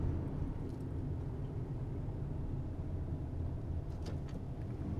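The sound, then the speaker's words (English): A steady low rumble of heavy road traffic fills the background, a continuous wash of engine and tyre noise from vehicles going by, with faint higher hiss flickering now and then. “Wow, there's a lot of traffic today.”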